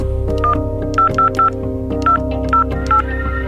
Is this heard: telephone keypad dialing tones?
yes